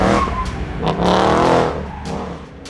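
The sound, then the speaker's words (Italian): A car engine revs hard and pulls away, its tone rising over a couple of seconds, with squealing tires and a loud, continuous roar that eases slightly at the end. “Il mio piede affonda sull'acceleratore, l'auto riparte sgommando.”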